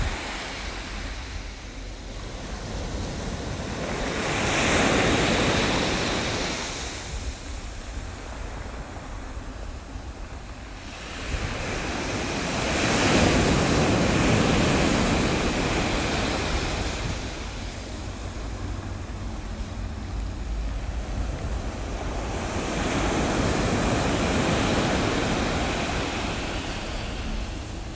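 ocean waves

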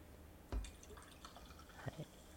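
drinking cola

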